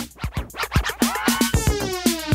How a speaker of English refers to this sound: scorching hot with high energy, dancing to the beat with a scratch mix sound that comes from the street.